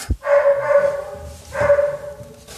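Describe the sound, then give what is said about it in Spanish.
Two drawn-out, tonal dog barks or yowls come one after another, fairly loud, with a short pause between them and no talking. “Cuando los perros dejen de ladrar va a estar fantástico, pero por el momento no se puede.”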